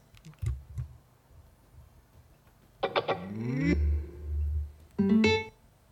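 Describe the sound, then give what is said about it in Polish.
A few soft clicks, then a rising electronic chime sequence with rapid stacked harmonic sweeps, followed later by a short two-tone beep burst: a Bluetooth speaker being switched on again, first its power-on tone, then its pairing signal, with no talking. “Dwa Dźwięki. Pierwszy to po prostu włączenie, drugi to parowanie.”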